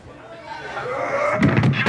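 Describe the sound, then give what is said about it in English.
An audience outside the room yells and screams as if something is going wrong, muffled through the walls, swelling louder over two seconds, with a few loud thuds like banging near the end. “Can you hear us out in the ba- uh, outside? Can you scream like something's going wrong in here?”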